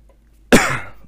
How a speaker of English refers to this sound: I fucking come back and cough into the mic.